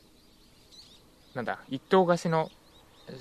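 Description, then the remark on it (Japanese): Faint wild birdsong from the mountains of Hachijojima island chirps in brief high notes in the background, recorded from a wooden deck with the microphone pointed toward the mountains, a couple of short calls heard before and after a person speaks. “周りの音も結構拾ってくれるマイクを使っているんですが八丈島のこの鳥の声とか取れてますでしょうか”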